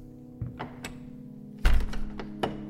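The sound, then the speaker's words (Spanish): A few small clicks and knocks lead into a heavy thud as the last door in a church's living quarters bangs open, followed by a brief rattle and one more knock over a steady low hum. “Entramos por la última puerta.”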